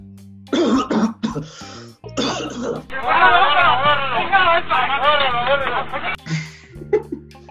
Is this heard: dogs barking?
no